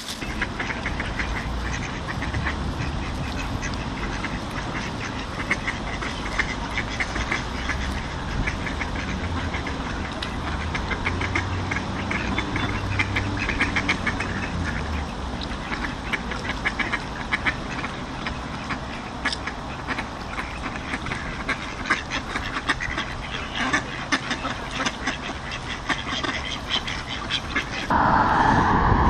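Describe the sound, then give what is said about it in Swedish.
Ducks quacking by the water at Norr Mälarstrand, their calls mixed into a steady, loud engine rumble that runs throughout, with no one speaking. “Här kommer ankor också.”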